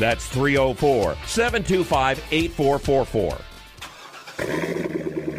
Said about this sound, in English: You hear that? That's the sound of America's only sports car. That's right, it's a Corvette. But not just any Corvette. It's your Corvette.